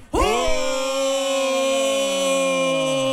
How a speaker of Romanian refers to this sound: Bun, deci hai, la două, trei și să-i huiduim cu toți. Fiți atenți, da? Hai. Nu pe polițiști, pe oamenii care cheamă